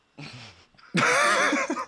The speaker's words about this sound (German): ich kann ja nur husten.